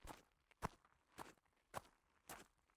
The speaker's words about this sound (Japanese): 砂利の音はもうすぐそこだ。